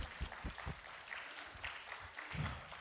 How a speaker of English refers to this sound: Aren't you glad to be here this morning? Let's worship our Lord with a clap offering. Amen. Let's worship Him.